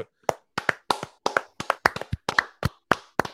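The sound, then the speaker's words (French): Several hosts clap their hands together in a brief, uneven burst of applause, sharp claps coming in quick succession for a few seconds with no talking. “Attends, on fait une tape de gueule pour Geneviève.”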